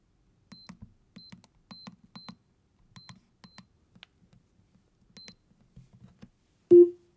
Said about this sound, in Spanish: Si ponemos el código 452180 en nuestro teclado inteligente Zigbee, entonces se va a poner el modo presente, significando la desactivación de nuestra alarma y nuestro asistente de voz nos va a confirmar con un mensaje de voz alarma desactivada.